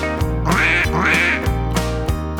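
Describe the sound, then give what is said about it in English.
Ducks on a farm quack loudly, a quick run of several nasal, raspy quacks in an uneven rhythm with barely a pause between them. “Right, the ducks go as they waddle under the fence.”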